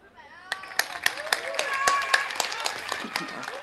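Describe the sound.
Light, scattered applause for a speaker at Rådhuspladsen: a dozen or so sharp, irregular claps ring out over a murmur of voices and chatter, starting softly and building slightly before thinning out.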